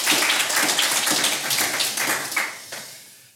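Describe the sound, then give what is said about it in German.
A crowd gives thunderous applause welcoming a guest, Vodafone Germany's Director Corporate Communications, a dense wash of many hands clapping at once that holds strong before gradually thinning and fading toward the end. “Und natürlich, wie für alle Gäste hier, einen donnernden Applaus.”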